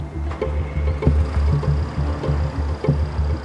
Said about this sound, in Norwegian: Sjåføren starta motoren rulla ut på veien og begynte på turen ut av Oslo. Under presenninga lå Eileen Bjørnson. Alt hun og de andre kunne høre, var den monotone motorduren fra lastebilen i vinternatta.